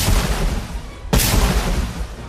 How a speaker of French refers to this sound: Le combat fait rage avec une violence inouïe. C'est une pluie de métal, un orage de poudre, un tonnerre de feu. 120 000 coups de canon sont tirés.